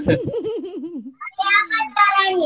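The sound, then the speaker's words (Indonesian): The speaker's young child, asking a question, chatters in a high, wavering voice in short bursts, overlapping with an adult who is speaking. “mohon maaf ya anak saya nanya”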